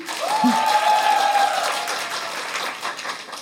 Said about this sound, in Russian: Предлагаю поаплодировать им.